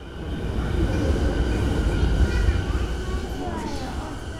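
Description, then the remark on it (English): A subway train in Tokyo rumbles steadily along the rails, a deep continuous roar with thin metallic whines and squeals rising over it, sustained throughout. “When I arrived in Tokyo, the first thing I did was take a subway to where I was staying.”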